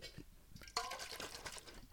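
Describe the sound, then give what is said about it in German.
Water pours into a glass in a short stream, with a bright splash at the start and a gurgling, rising fill that runs for about a second and a half. “Ja bedenken wir, äh, gedenken wir dem Wasser. Warte.”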